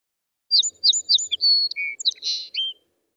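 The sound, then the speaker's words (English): A single bird sings a quick, bright phrase of repeated high chirps followed by a few varied trills and whistles, clear, on a cold day, with no voices around it. “Birds, my sister shouts.”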